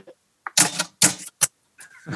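Clattering strikes of the keys of an old, classic analog mechanical typewriter, fairly loud, coming in a few quick irregular bursts with short pauses between them.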